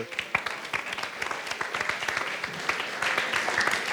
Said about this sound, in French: qu'on peut également d'ailleurs applaudir et remercier.